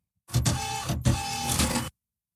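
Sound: phone ringing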